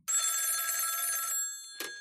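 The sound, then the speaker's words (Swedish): A telephone rings with a steady, bright electronic trill for over a second as a call is placed, then a short second burst begins as the line connects. No one speaks. “Ja, vi gör vi ringer upp honom.”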